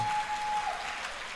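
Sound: audience applauding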